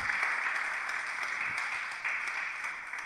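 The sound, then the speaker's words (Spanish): Steady applause from an audience clapping for Christ, a dense, continuous wash of many hands clapping at once, moderately loud and sustained throughout with no talking over it. “Yo, quiero darle un aplauso a Cristo por esa verdad.”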